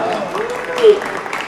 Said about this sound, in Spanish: Venga, ya aplauso, un aplauso.